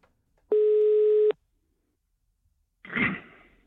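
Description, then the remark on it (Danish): A single steady telephone ringing tone sounds for under a second on an outgoing call made from a radio studio, then silence, followed by a short muffled rustle as the line seems to pick up. “Jeg står øh, i et radiostudie og ringer rundt og siger tillykke.”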